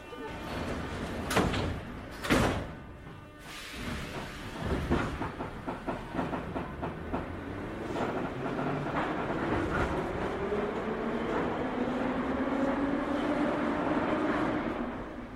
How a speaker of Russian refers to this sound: Осторожно, двери закрываются.